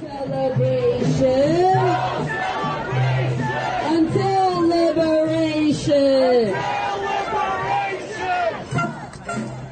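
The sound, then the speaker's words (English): A large protest crowd chants and shouts in unison, loud, with rhythmic rising voices repeating a slogan over a constant background of crowd noise for the whole stretch. “Here's a little bit of some of the protests last night where they started punching police officers.”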